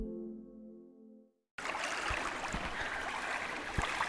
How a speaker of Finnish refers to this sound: Laineet liplattaa rantaan tuossa vieressä. Ollaan Lammassaaressa, ei siinä pitkospuista tutussa helsinkiläisessä saaressa, vaan ollaan Imatralla Saimaan rannalla.